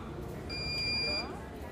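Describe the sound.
A single sustained electronic beep from a washing machine in a large laundry, signalling the end of its cycle, lasting under a second, over the steady humming of the machines and people talking.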